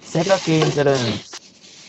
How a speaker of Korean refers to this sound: 굉장히 지직되고요. 미안해요. 비닐봉지야.